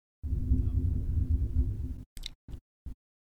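rumble of thunder

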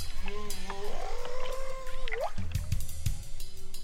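whale vocalizations

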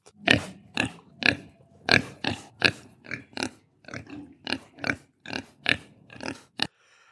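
pigs grunting

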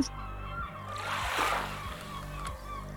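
seagulls squawking

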